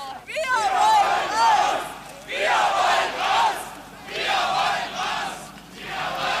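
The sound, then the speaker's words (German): A crowd of about 1000 demonstrators, would-be emigrants and opposition groups seeking reform, chants in Leipzig on 4 September 1989 after the Monday prayer at the Nikolaikirche, in loud, rhythmic bursts, with shouted phrases repeating about every two seconds, rising and falling in waves with no single voice standing out. “Etwa 1000 Demonstranten, zur Hälfte Ausreisewillige, zur Hälfte oppositionelle Gruppen, die bleiben wollen, aber für Reformen im Land auf die Straße gehen und dafür hohe Geldstrafen und neuerdings auch Freiheitsstrafen riskieren.”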